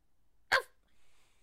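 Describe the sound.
A person imitates a dog with one short, sharp bark, loud, followed by near silence with only a faint hiss.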